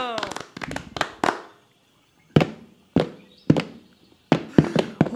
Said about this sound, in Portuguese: Bota a espora de chelana nos pés, ao som da viola e sai dançando. Ora batendo palma, ora sapateando.